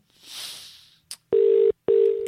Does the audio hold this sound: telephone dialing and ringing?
yes